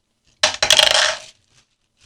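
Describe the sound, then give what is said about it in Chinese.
A loose shaker ball rattles inside a milkshake cup that is green on top and pink below: a bright metallic clatter, one short knock then a busier burst of rattling lasting nearly a second, with another brief rattle starting at the end. “哟，它里面有那个可以用奶昔的那个球哎。”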